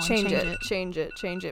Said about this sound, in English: Sorry, that was my alarm.